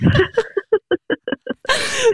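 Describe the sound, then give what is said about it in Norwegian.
A sharp sneeze bursts out, followed by a run of short rhythmic laughing pulses and a final breathy, hissing exhale. “Prosit, stakkar.”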